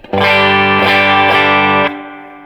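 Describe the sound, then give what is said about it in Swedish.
A single sustained, overdriven electric guitar chord, played through a Vibrolux amplifier with a V30 speaker, rings out loudly for about two seconds with a slightly crunchy, harmonically rich tone, then cuts off abruptly. No voices are present. “Vibrolux med V30.”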